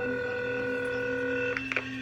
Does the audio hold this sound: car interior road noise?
no